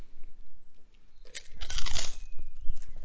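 Loud crunching of prawn crackers being chewed, with bursts of crackly rustling that build after a quiet start and continue in irregular clusters. No talking.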